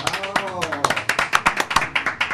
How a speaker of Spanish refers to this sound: No hable todavía. Un aplauso muchachos.